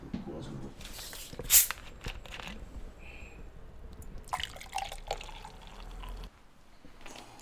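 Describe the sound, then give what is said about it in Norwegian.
Cola is poured into a glass, a steady liquid gurgle with crackling carbonation and a brief clink near the start, ending abruptly into quiet. “et glass cola hadde vært fint.”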